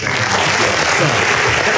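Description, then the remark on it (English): A burst of applause: dense, steady clapping from a crowd, loud and hissy across the whole clip with no pauses, like a short applause sound effect. “Can you play the claps one more time?”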